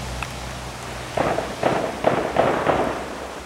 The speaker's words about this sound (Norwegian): Samtidig har en fastboende på landsiden noen hundre meter opp i åsen besøk av en kamerat. De har god utsikt til Utøya og er på mobilen mens de filmer det de ser. Masse skyting, en eksplosjon, rop om hjelp.